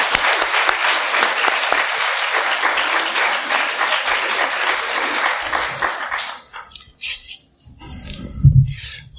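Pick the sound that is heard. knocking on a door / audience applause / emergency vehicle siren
audience applause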